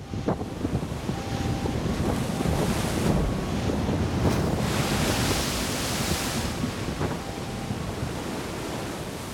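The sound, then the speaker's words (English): Roaring wind of tropical cyclone Pam, heading to Vanuatu in the South Pacific on 6 March 2015, buffets the microphone while heavy ocean waves crash and churn continuously, a loud, dense wall of turbulent noise with no voices. “The second most intense tropical cyclone to ever hit the South Pacific Ocean is headed straight to Vanuatu.”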